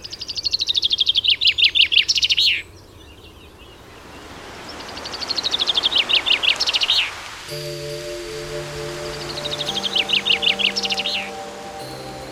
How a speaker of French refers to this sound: c'est que le matin de bonheur, eh bien, les, oiseaux justement ben, chantent, euh, en particulier au printemps. et donc là, c'est le moment privilégié pour pouvoir apprécier la diversité.